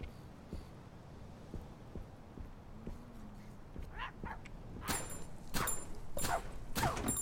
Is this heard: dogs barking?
yes